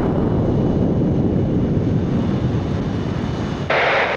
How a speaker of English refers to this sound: Oh my god, he's flying into the bell. Can you see him? Wait, I can see the plane. It's it's dropping. Oh my god.